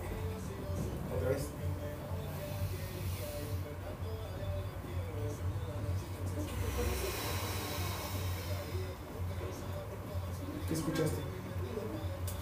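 Soft, airy breath sounds like air rushing into a bag: a steady, fairly quiet hiss over a low rumble, swelling briefly midway before settling back.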